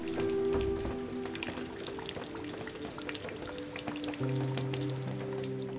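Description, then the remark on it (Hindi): Raindrops plop steadily into a bucket filled with water, a scattered patter of small splashes with ringing, tonal resonances underneath, continuous, with no voices. “जरा सुनिए धुन बारिश की बूंदों की अलग अलग सतहों पर स्टील पर प्लास्टिक पर टिन पर लकड़ी पर पानी से भरी हुई बाल्टी में”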